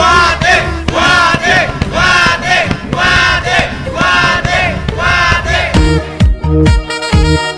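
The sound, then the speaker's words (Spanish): A massive crowd roars together in unison, showing national unity, rhythmic chanted shouts swelling in repeated waves, loud and dense, ending with sharp punctuating bursts and booming hits. “Y ese sonido que producen millones de gargantas que al unísono demuestran la unión nacional.”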